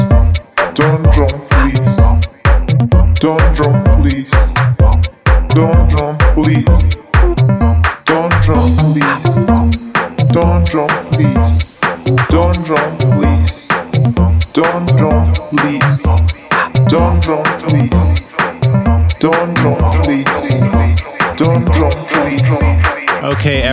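A loud electronic dance track pumps with a steady four-on-the-floor kick, punchy bass and crisp hi-hats, driving continuously with no voices over it.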